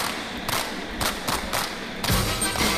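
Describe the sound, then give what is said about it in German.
Rhythmic clapping opens a song recording made by FC Bayern München after winning the European Cup Winners' Cup in 1967: sharp, bright claps land in a steady beat, then a fuller, louder wash of sound swells in near the end. “Es musste immer so geklatscht werden am Anfang, ne?”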